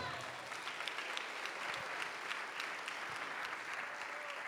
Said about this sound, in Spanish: Dele su mejor aplauso al Señor.